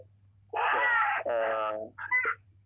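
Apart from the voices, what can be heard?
goat bleating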